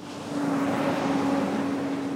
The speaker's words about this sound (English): On an industrial street in the city of Riverside, delivery trucks rumble past a small wooden building the Trujillo adobe built over 150 years ago in 1862.